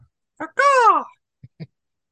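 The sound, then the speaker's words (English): A person imitates a crow with one loud, drawn-out caw that slides downward in pitch, framed by a few brief, soft vocal noises before and after. “That was like, like a crow, though.”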